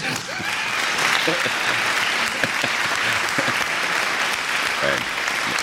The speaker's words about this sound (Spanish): Ahí, ves, y encima aplaude más fuerte, ¿eh? Cuando está secretaria, aplaude más fuerte.